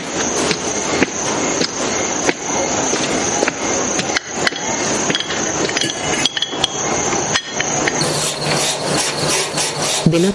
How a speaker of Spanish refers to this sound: lija una superficie